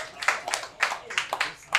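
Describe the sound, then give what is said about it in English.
Scattered audience clapping: a handful of sharp, bright claps in an uneven rhythm, moderately loud, with no one speaking over them. “It's cool to clap. It means you're having a good time.”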